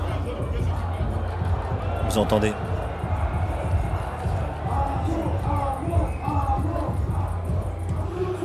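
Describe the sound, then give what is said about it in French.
Muffled live music from a performer playing inside a big marquee tent, heard from backstage, its bass thumping steadily through the walls, with a crowd murmuring and a man talking over it. “c'est le gars qui est en train de se produire dans le chapiteau on va essayer de rentrer pour faire quelques sons d'ambiance.”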